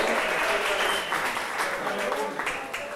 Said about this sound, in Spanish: Un aplauso.